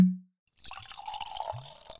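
Wine is poured into a glass: a steady, gurgling trickle of liquid lasting just over a second, with a few small splashes. It follows a short low thud and a moment of silence, with no talking.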